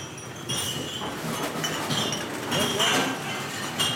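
Dense, continuous clatter of returned glass bottles and aluminium cans clinking against each other in a recycling sorting machine that sorts them into glass, plastic and aluminium, with bright metallic and glassy hits layered over a steady mechanical roar.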